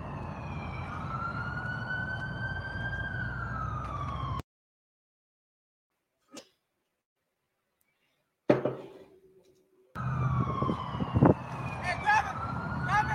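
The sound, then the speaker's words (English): A police siren wails loudly with a slow rising and falling tone over road rumble, cuts out into near silence broken by a couple of clicks, then resumes. “You heard the cop?”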